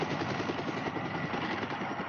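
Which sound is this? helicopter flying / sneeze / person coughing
helicopter flying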